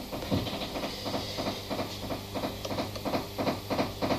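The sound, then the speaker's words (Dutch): A reel-to-reel tape recorder, an existing machine that has been converted, runs with a steady mechanical clatter, regular rhythmic clicks repeating about twice a second over a constant hiss and low hum, with no voices. “Je voor een, eh, bestaande bandrecorder omgebouwd. Dat kan ik laten horen.”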